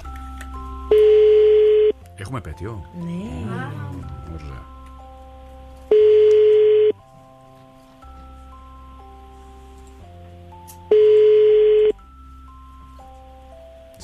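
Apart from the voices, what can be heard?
telephone dialing tones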